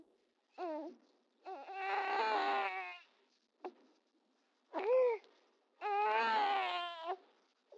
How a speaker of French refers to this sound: Les premiers enregistreurs numériques faisaient leur apparition. Mais c'était loin d'être synonyme de meilleure qualité. Ça a été tout de même l'occasion d'enregistrer les premiers sons de mes enfants dès 1997.